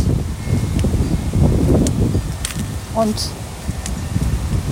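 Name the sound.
wind blowing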